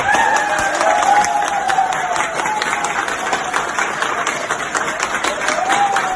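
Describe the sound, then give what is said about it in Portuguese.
Hospital staff applaud a recovered patient, a dense, steady burst of many hands clapping with scattered cheers and a faint whistle rising above, loud and continuous throughout. “Esse som ecoou pelos corredores de hospitais do mundo todo. Era a saudação a quem estava salvo e havia se curado da doença.”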